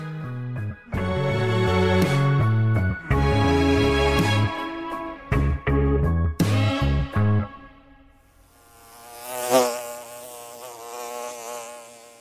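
A short melodic jingle plays, then a bee buzzes for a few seconds, its drone wavering in pitch and swelling louder before fading away.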